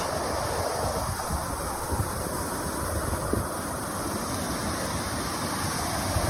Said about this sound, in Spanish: Esto ocurría esta mañana en Grazalema, es el río Guadalete, que va con fuerza.